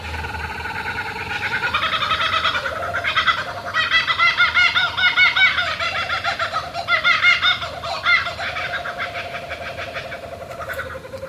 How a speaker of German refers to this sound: Ja, es ist ein Vogel. Okay. Es müsste dieser Laughing Cockaburo sein. Genau.